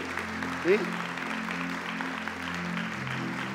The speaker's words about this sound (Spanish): si le vas a dar una ofrenda de aplauso a Dios, dásela bien.